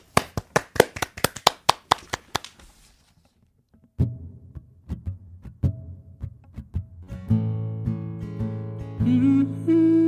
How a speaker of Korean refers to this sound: 박수!